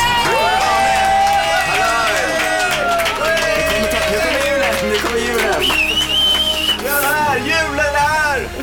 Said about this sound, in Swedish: Folkets jubel för ….